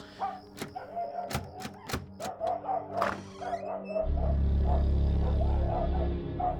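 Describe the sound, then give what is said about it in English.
Several sharp knocks or rattles as the handle of a neighbors' house door is tried, then a heavy thud as the door gives way, followed by a low rumbling hum, with faint dog-like yips in the background. September 27, 1966. “just try the handle.”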